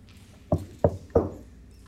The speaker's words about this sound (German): Wollen wir klopfen und Infos weitergeben?